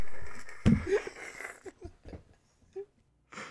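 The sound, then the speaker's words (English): A single voice mimics a crowd roaring for The Rock with a loud, breathy, hissing burst that swells for about a second, then breaks into scattered huffs and short exhales. “That's what the crowd sound like for The Rock, by the way.”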